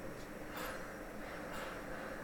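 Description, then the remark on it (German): Medical ventilators on shelves puff steadily during a stress test, rhythmically inflating grey test balloons: two soft, breathy whooshes about a second apart rise over a continuous low hiss, fairly quiet, with no voices. “Da schnaufen sie also vor sich hin, die Beatmungsgeräte im Belastungstest, und üben für ihren lebenswichtigen Einsatz.”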